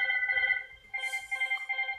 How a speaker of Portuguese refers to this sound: Desculpa, gente, telefone tocando. Isso nunca aconteceu antes, essa foi a primeira vez e vai ser a última. É sério que você vai deixar tocando?